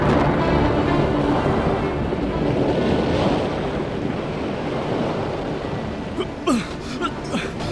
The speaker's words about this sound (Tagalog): Malakas na ang hangin! Malalaki ang mga alon!